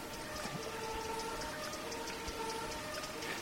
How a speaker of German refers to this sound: Dennoch hat man am Ufer der Parte im Leipziger Norden bereits ein Gefühl von unberührter Natur. Der kleine Bach schlängelt sich zwischen Wiesen, nur hin und wieder wird vom Wind der Verkehrslärm herübergeweht.